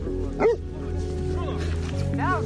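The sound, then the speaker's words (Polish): A large dog running about a yard gives a sharp bark, then a couple of higher whining yelps, over a steady low hum with a muffled voice faintly in the background. “Na podwórku krzątał się młody chłopak, brat Przemka, oraz biegał duży pies.”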